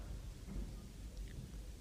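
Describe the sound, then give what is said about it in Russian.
Steady rainfall on a dark night at a villa in the Austrian town of Kleinstadt, with a low rumbling undertone, a dense continuous hiss of drops with no voices, fairly quiet and even throughout. “Темная дождливая ночь.”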